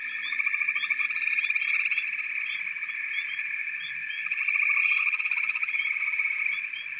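Frogs croak in a dense, continuous chorus of rapid pulsing trills, steady and fairly loud throughout, with higher chirping calls scattered on top and no voices.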